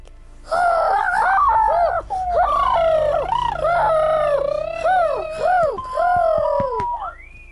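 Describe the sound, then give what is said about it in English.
A loud chorus of pigeons from the cartoon Ziblings cooing and warbling, several birds overlapping in a continuous burbling stream for about seven seconds with no talking. “News reporter by day, pigeon powered supervillain by night!”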